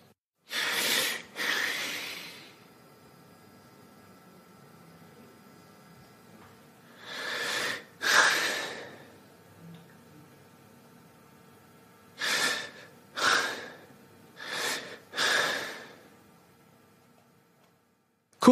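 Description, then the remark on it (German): Heavy, labored breaths come in irregular clusters: a pair early, another pair after a pause, then four strained breaths close together near the end. Each is a loud, breathy rasp with quiet gaps between. “Gelegentlich angestrengtes Atmen ist charakterisiert durch gelegentliches Auftreten von anstrengenden, ermüdenden oder schweren Atemzügen.”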